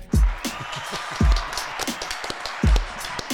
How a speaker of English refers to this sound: And so, um, and so please give your hands and put up a cheer for the for the man himself, Toks Fale.